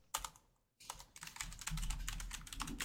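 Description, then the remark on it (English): Rapid typing on a computer keyboard to look something up, a quick burst of keystrokes, a brief pause, then a steady run of fast clicking taps, clear with no talking. “Um, well, let me look up real quick.”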